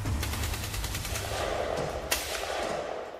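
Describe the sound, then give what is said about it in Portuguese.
A rapid series of gunshots cracks out in a fast, uneven burst, followed by a single sharper shot a moment later, all set against a dull, rumbling background with no one speaking. “Ainda meio adormecido, Geraldino nem imagina que aqueles barulhos possam ser tiros.”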